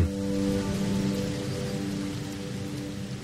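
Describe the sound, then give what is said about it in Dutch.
Steady rain pattering on a hard surface in the Dender valley, a dense, continuous wash of drops with a faint low hum underneath and no voices. “Alweer betaalt de Dendervallei de prijs voor zo veel regen”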